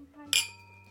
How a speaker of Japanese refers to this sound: はいいやめっちゃいい音なんだよね、うマイク拾ってくれるかなちょっと今日いいマイクにしてみたの皆さんどうですかって感じなんですけどはい はい、はい、じゃあ乾杯